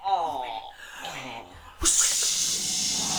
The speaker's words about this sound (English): They untied the bag and all the winds roared into hurricane.